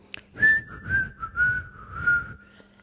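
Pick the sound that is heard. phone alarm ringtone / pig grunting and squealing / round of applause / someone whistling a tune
someone whistling a tune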